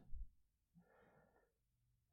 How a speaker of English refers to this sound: Breathing in and out. Just take a few breaths here with me. Notice the breath coming in, your chest expanding and falling breathing in and out, breathing in and out.